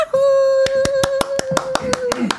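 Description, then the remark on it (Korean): Steady rhythmic hand clapping by show hosts along to a song being performed, about ten sharp claps in an even beat, over a loud sustained tone, like a held singing note or music. “이 노래 예 듣고 저희가 또 박수 쳐드릴게요.”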